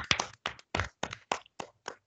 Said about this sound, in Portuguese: E eu vou começar essa edição quebrando o protocolo, batendo uma sala de palmas, porque finalmente não tivemos o resultado da Fórmula 1 decidido pelos comissários. Então, por favor, todos, uma, uma de palmas.